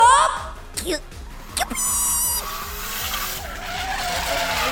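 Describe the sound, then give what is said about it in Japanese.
Racing video game tires skid during a heated two-player race, with sharp, repeated squeals over a steady, pulsing engine drone, the loud screeches bursting in before trailing off into continuous motor noise. “白熱したレースゲームの様子を感じながら、思わずほっこりできるドラマをどうぞ！”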